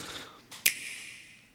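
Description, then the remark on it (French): A single crisp, snappy click, like a finger snap, preceded by a softer tick and followed by a faint ringing tail, heard alone. It's the short startup click of a Nintendo Switch console. “c'est le son de démarrage de la Switch qu'on entend”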